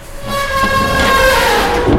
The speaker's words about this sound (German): Die Tür schreit förmlich beim Schließen, aber sie schafft es schließlich und die Kabine setzt sich in Bewegung.